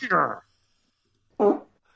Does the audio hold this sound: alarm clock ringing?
no